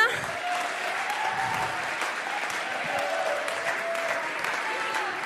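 An audience claps steadily for several seconds, a dense, even wash of many hands at a constant moderate loudness with no voices standing out.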